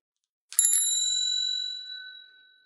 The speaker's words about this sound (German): Das war eine Fahrradklingel, oder? Richtig, aber auch ja. schon zu laut.